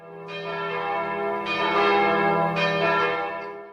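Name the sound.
church bells ringing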